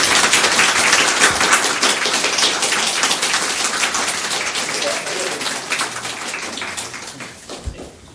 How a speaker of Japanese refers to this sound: 最後になりますけれども、えー、青木様とですね森谷様に大きな拍手をお送りください。